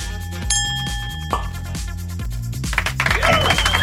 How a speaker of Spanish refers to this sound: Aplausos, gritos y ovación.